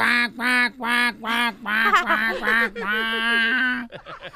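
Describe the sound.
A voice imitates a duck, giving a string of nasal, buzzy quacks: four short separate calls followed by a longer warbling run, fairly loud and with nothing else behind it.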